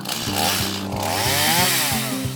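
A chainsaw engine runs loud, its buzzing snarl rising and falling in quick revs with no voices over it.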